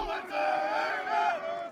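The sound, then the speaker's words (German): Counter-protesters shouting down a Pegida rally on Theaterplatz by the Semperoper, with police stepping in: a sustained, loud roar of many raised voices, holding a steady chant-like pitch before tapering off slightly at the end. “Die Polizei geht dazwischen, Gegendemonstranten schreien Pegida nieder.”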